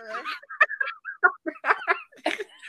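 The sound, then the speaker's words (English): A person imitates a clucking chicken, making a rapid string of short, choppy clucks and squawks in an uneven rhythm for a few seconds. “I can cluck cluck when they need.”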